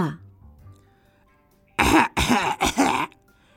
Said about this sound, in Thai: นกนางนวลไอ แล้วก็เสริมว่า